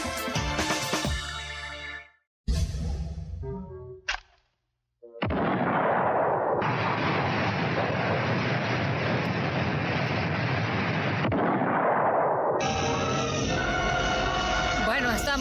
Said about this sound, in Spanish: estamos escuchando em, explosiones como del Correcaminos, ¿no? Y los Looney Tunes. Em, porque nuestra historia sonora habla de explosiones, pero de explosiones muy particulares.